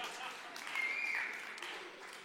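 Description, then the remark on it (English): A few people clap about the prospect of a Green Bay Packers versus Kansas City Chiefs Super Bowl, a steady, scattered patter at moderate loudness, the claps blurring into a continuous hiss for a couple of seconds, with faint voices mixed in. “For the people who are clapping about that, I have no idea what to say right now.”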